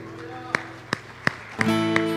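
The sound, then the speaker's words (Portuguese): An audience standing in their places claps together for their king, Jesus, in a steady beat, five sharp unison claps roughly a third of a second apart, over a sustained keyboard tone. “Por isso, fica de pé no teu lugar e dá uma salva de palmas ao teu rei.”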